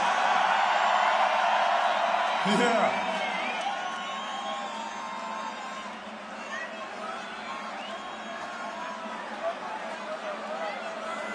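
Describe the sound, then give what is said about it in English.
A large crowd roars and cheers, with whoops rising over dense, continuous noise that fades slightly after a few seconds; one voice shouts briefly near the start. “Belgium represent, make some noise!”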